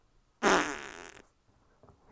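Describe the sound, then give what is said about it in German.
A single loud, close-up fart blasts right into a microphone, raspy and sputtering for about a second, then cuts off into near silence. “hör auf, in dein Mikro zu furzen.”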